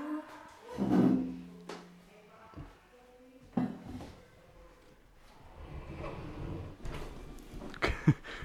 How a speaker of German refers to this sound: Türe zu.